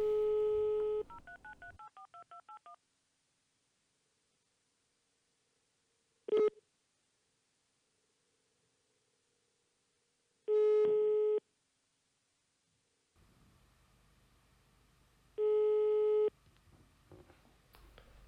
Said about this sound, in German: Deswegen werden wir ihn jetzt gleich mal anrufen und einfach mal hören, wie seine ersten Tage waren.